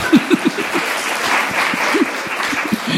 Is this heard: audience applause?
yes